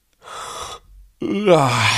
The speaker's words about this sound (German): … liegt noch im Bett. Beziehungsweise er lag noch im Bett. … gähnt.